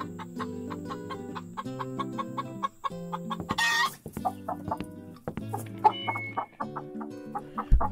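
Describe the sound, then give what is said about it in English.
Several chickens cluck steadily and repeatedly, with overlapping short harmonic calls forming a busy, continuous flock chatter; a brief rustling burst interrupts midway. No one speaks. “And more chickens.”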